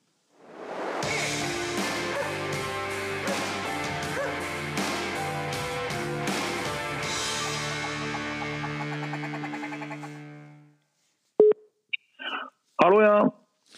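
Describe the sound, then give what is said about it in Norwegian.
A bright, full-sounding musical jingle plays for about ten seconds with steady rhythmic hits, then fades out and is followed by a few short, sharp bursts that sound like dog barks. “Da kjører vi jingle.”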